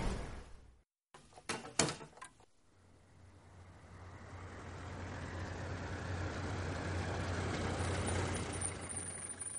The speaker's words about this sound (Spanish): A Marte, dijo él, mientras abría la puerta del armario para tomar una camisa limpia.